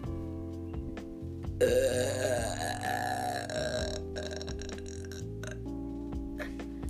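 A loud, long burp rumbles out close to the microphone, drawn out for several seconds with a gravelly, throaty texture and no talking over it.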